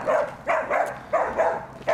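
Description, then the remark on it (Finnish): A small dog barks sharply and repeatedly, about six high-pitched yaps in quick, slightly uneven succession, loud, with no talking. “Se tulee koira. Kova ääni ja pieni paketti.”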